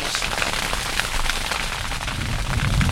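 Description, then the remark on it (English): A sugarcane field fire, burned before harvest so only the stalks are left, heard from a washboard cane road in front of the flames, burns with a dense, steady roar of crackling, sharp pops and snaps scattered through a constant hiss. It stays loud and even throughout, with no voices. “To understand that, I get back on the ground, ride down a washboard cane road, and stop my rental car in front of the flames.”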